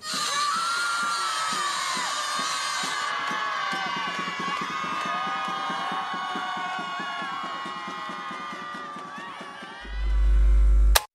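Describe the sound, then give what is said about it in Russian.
A large crowd screams together in anger in one long, loud, sustained roar of many raised voices, a minute of shouting instead of a minute of silence in memory of murdered women, holding steady for about ten seconds before a deep rumbling boom cuts in at the end. “И у нас будет минута крика, нашего общего крика ярости и гнева, который у нас вызывает бесправие и убийство женщин.”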